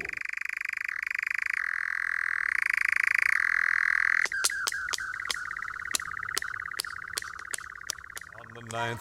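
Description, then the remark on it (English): A nightjar's loud, steady churring trill at night, from a courting bird flitting around the plantations where it breeds, runs on without a break, later punctuated by a series of sharp, evenly spaced clicks while the churr continues. “But at night, when they're courting, flitting around the uh, plantations that they breed in, you can hear the call of the nightjar.”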